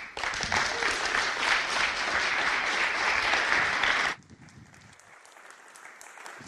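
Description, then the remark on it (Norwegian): An audience applauds steadily and loudly for about four seconds to welcome a speaker, then the clapping cuts off abruptly, leaving only faint background noise. “tusen takk, Bent Ove, for aldeles overstrømmende velkomst”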